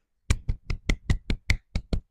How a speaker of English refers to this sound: that's my hands a clapping and applauding because I finally did get a job.